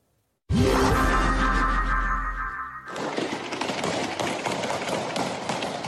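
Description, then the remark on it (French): A loud, booming sting gives way to a dense stretch of rapid, repeated automatic-weapon gunfire as Taliban fighters fire into the air to disperse a demonstration in Kabul, Afghanistan, over a noisy, chaotic, panicking crowd, sustained and fairly loud throughout. “Panique générale, coups de feu répétés. À Kaboul, les talibans dispersent une manifestation, tirant en l'air avec leurs armes automatiques.”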